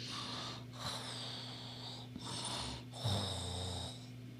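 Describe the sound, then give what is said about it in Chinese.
Snoring: three raspy, breathy swells in a slow rhythm, each separated by a brief pause, over a steady low hum with no talking. “在他打呼噜的时候，所有的黑暗慢慢的从他的身体里面流出来”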